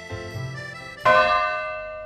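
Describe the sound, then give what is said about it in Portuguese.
Large cathedral bells of Notre Dame ringing, a set of bells cast to replace the originals, with a fresh loud strike about halfway through whose rich, shimmering overtones hang and slowly fade. Resonant, with no voices. “Uh, posteriormente, houve a fabricação de um conjunto de sinos que foi recolocado lá”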